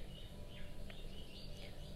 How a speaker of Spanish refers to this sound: Tiempo para estar, tiempo para escuchar el pajarito que está cantando por allá